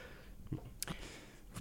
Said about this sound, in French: Bah, j'ai entendu une respiration.